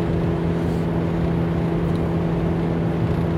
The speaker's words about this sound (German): ich fahre ja jetzt gerade zur Arbeit